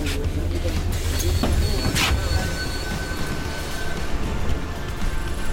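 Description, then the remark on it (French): Inside a city bus, a steady low engine rumble runs as it pulls over to stop at a passenger's request, with a short hiss near the middle and faint murmuring voices in the background. “Monsieur, est-ce que vous pouvez arrêter le bus, s'il vous plaît J'habite juste ici.”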